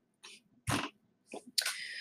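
Someone takes a sip of water: a few short, breathy slurping and swallowing noises in separate bursts, the last one longer and hissier, with no talking.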